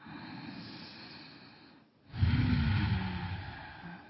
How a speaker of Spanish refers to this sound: Siéntanse cómodos. conectados con el asiento, con el piso, con respaldar y respiren profundamente, pero profundo y exhalen todo por la fosa nasal. Otra respiración profunda.